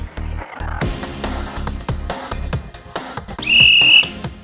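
A referee's kickoff whistle gives one shrill, steady blast of about half a second, piercing loudly over an upbeat rhythmic music bed with punchy drums.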